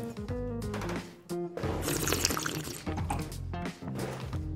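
A 2019 Riesling Szilváni wine from Bogács (Galagonyás) in the Bükk wine region swirls and sloshes in a glass, then is sipped, with wet liquid movement and some ringing, tonal overtones. The sounds are fairly steady over a few seconds and there is no talking.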